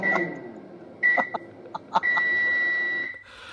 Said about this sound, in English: just warming up my, my dinner, my lunch. just trying to get healthy. Is that the microwave?